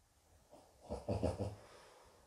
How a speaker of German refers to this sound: Da atmet mein Hund tief fest durch, er freut sich auch schon darauf.